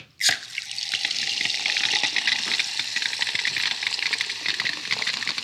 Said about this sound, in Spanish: Entonces, mientras sirvo las cubitas